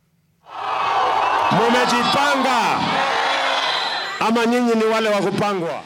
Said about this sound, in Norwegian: Store folkemengder, jubel og en litt sprengd høgtaler. Det er fem år siden sist, men nå er valgkampsirkuset i full gang igjen i Kenya. William Ruto taler til sine tilhengere, før han entrer et lasteplan på en pickup som kjører gjennom den jublende